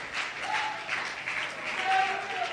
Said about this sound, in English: My God, if you're going to clap, clap. If you're going to praise, praise.